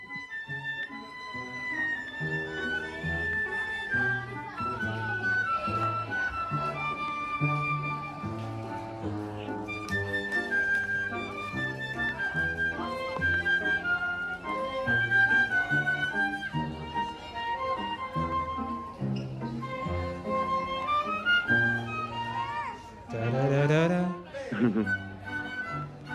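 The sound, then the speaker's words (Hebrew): A group of children at a concert for children sings along with a small orchestra playing songs, their voices blending over a full, steady accompaniment that continues throughout and swells briefly near the end. “אה, מתוך, קונצרט, מתוך קונצרט לפני ילדים, אתם תשמעו את הילדים שרים ממש.”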